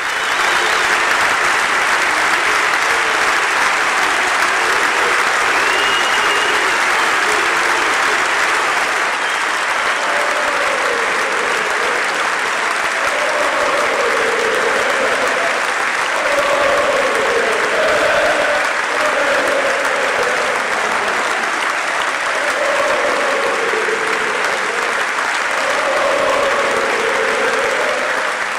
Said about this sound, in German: Die Mitglieder erheben sich, auch von Präsidium und Vorstand gibt es stehende Ovationen. Hoeneß kann seine Tränen nicht zurückhalten. Als der Applaus nicht enden will, erhebt auch er sich mit nassen Augen.